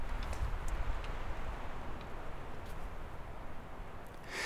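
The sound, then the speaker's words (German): A steady, airy rush of wind through the needles of mountain pines in the high mountains, a broad hiss that holds an even level throughout with slight swells and no voices. “Im Hochgebirge ist das zum Beispiel das Rauschen des Windes in den Nadeln der Bergföhre.”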